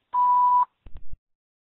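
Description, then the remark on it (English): A single steady electronic answering machine beep at one pitch lasts about half a second, followed by a few soft low thumps or clicks, like a handset being handled. “Please leave your name and phone number after the beep.”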